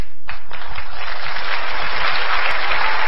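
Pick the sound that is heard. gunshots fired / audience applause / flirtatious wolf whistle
audience applause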